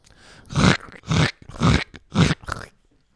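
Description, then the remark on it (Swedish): A voice imitates footsteps on gravel: four evenly spaced, gritty crunching bursts made with the mouth, fairly loud, with short pauses between them and no speech. “Det låter ett fotsteg i grus då.”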